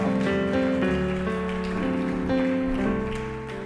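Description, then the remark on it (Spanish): A church audience of Iglesia Amante de su Presencia applauding for Jesus: dense, steady clapping that runs the whole time over sustained, held musical tones, easing off slightly toward the end. “Dar un aplauso a Jesús si Él está vivo en tu vida.”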